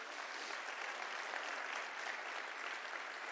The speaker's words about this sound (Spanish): Vamos a darle un aplauso a todo el que adora a Dios.